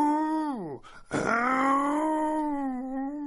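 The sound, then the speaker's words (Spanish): A human voice imitates a lion's roar, but weakly: a moaning tone slides downward and breaks off with a breathy gasp, then a long, steady, mid-pitched howl is held to the end. “¿Eso es todo lo que puedes rugir?”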